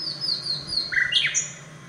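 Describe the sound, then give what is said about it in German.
A nightingale sings in Bamberg, Bavaria, with a string of clear, high whistled notes and quick sliding phrases, some falling and some rising, over a quiet low background hum. “Bis Ende des Jahres will das Projekt Forschungsfall Nachtigall alle eingeschickten Gesangsstrophen analysieren.”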